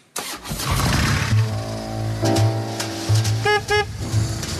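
A 1200cc BMW motorcycle, lower than other BMWs, rumbles and revs while riding through traffic with a passenger on the back, with a pair of short horn toots sounding near the end. Nobody speaks.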